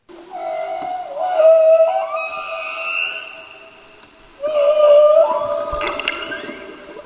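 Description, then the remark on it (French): Humpback whale song: two long, rising and falling tonal moans with wavering harmonics, each swelling then fading, heard alone against a faint watery background. “vous venez d'entendre un magnifique chant de baleine, et plus précisément de baleine à bosse”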